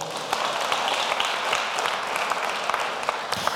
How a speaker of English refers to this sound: Come and clap your hands with the Lord.